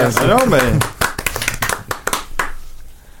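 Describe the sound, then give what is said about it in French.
One person claps alone, about eight or nine sharp hand claps in an uneven rhythm that trails off, following a brief burst of voice at the start. “Sous, nos applaudissements. Eh, merci, merci beaucoup. Bah oui, et tout seul à applaudir, ah”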